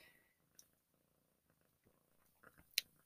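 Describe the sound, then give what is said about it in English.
A pet cat sitting next to a person purrs steadily in a rhythmic, low rumble, with a couple of sharp clicks near the end and no talking. “If you hear purring really loud in the background, I'm so sorry.”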